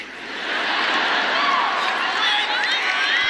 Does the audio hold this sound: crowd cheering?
yes